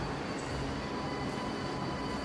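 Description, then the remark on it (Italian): A subway train rumbles along steadily in the metro, a dense, loud roar of wheels and motor with a faint high whine running through it, continuous, with no voices. “le ammucchiate nella metro col fiato sospeso fino alla fermata successiva.”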